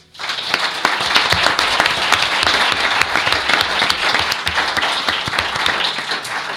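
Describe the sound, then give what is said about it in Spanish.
An audience breaks into sustained applause for the author of the book El enigma de la espada de San Pablo, dense overlapping clapping that starts abruptly and holds a steady, loud level for several seconds with no voices on top. “Yo creo que se merece un aplauso, ¿verdad?”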